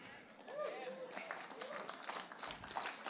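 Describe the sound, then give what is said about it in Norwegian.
An audience breaks into steady applause, a dense patter of many hands at moderate loudness, with murmuring voices mixed in throughout the few seconds. “Jeg trenger ikke applaus.”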